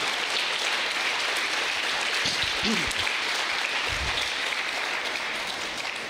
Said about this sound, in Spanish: Alguien dice amén y puede darle un aplauso fuerte a esta verdad.